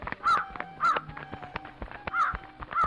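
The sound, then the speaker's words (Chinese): A crow caws repeatedly in harsh, rasping calls, four loud bursts spaced unevenly over a few seconds, with scattered clicks and faint background noise between them. “奸细乌鸦接到命令后，立刻出发了。”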